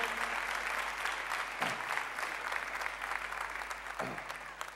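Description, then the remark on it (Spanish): An audience claps steadily for several seconds as applause to the Lord, a dense, sustained wash of many hands with no pauses, fairly loud and even throughout, with no one speaking over it. “¿Cuántos creen eso y le dan un aplauso al Señor?”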